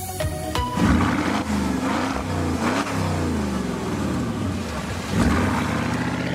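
A 2004 Porsche Cayenne Turbo V8 roars loud, revving repeatedly so its deep engine note swells and dips in pitch, with a fresh surge near the end and no voices.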